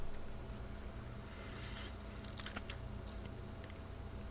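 Quick, uneven clicks of someone typing on a computer keyboard, fairly soft, over a steady low hum with no one talking.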